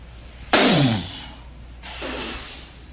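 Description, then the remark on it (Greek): American televangelist Kenneth Copeland blows hard into his microphone twice, as the 'wind of God' against the coronavirus, producing loud, rushing bursts of breath noise; the first blast is sharp and strong, the second longer and a little softer. “έναν τηλεευαγγελιστή στην Αμερική, τον Γκένεθ Κόπλαντ, ο οποίο βγήκε και άρχισε και έφτιανε στο μικρόφωνο του και φώναζε ε, Σου πετάω την οργή του Θεού, τον αέρα του Θεού, κορονοϊέ, φύγε, φύγε.”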